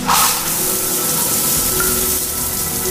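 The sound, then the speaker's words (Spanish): A steady, loud hiss of warm shower water pouring continuously, broad and unbroken for the whole stretch, with faint tonal hum underneath and no voices. “Bajo el agua tibia, la tensión de su cuerpo cedió Victoria veía caer los cuajarones de sangre sobre los azulejos blancos y arrastrados por un torrente purpúreo, irse por el desagüe.”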